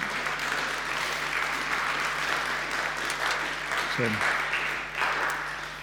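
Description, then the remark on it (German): Sustained applause from an audience for the band, a dense steady wash of clapping that holds at an even level throughout and eases slightly near the end. “Dürft schon mal den Applaus unserer Band geben, die haben alles gegeben.”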